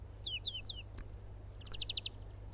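A European greenfinch sings in two quick bursts: first three descending whistled notes, then a fast run of bright trilled notes, over a low steady background hum.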